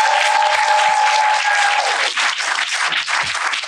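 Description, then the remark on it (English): A crowd applauds loudly and continuously, a dense wash of many hands clapping at once that holds steady throughout, with a few whoops or cheers rising briefly near the start. “Clap it up, clap it up, clap it up.”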